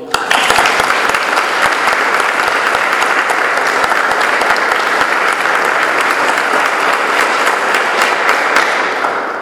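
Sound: applause from church audience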